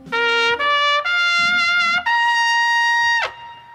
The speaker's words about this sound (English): Somebody says something, we crescendo, we bring in the trumpets, and we show Doug Benson the respect he deserves.